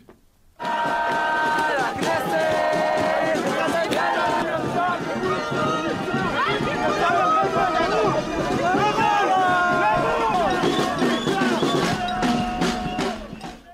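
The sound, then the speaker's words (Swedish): A large street protest crowd, with many Israeli flags, chants and shouts together, loud, with drumbeats pounding steadily underneath the mass of voices throughout. “Men det var, det var mycket trummor, det var mycket israeliska flaggor, mm. det var jättemycket folk.”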